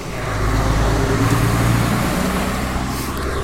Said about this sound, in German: und hier kommt gerade ein BSR-Wagen angefahren.